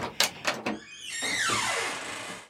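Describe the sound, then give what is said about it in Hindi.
The door of a government flat in Gol Market, New Delhi, is unlatched with a few sharp clicks, then swings open with a long, drawn-out creaking squeal that slides downward in pitch. No voices. “थोड़ी देर बाद इसी फ्लैट का दरवाजा खुलता है”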